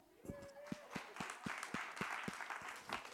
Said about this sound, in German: Wir geben uns selber einen Applaus.